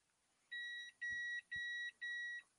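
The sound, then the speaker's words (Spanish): A Skytel pager from Mexico beeps four times in a steady rhythm, each tone a bright electronic chirp about half a second long with short gaps between, clear with a couple of soft low thumps. “y lo del famoso viper, pues viene del bip ¿no? Del famoso bip aquí está.”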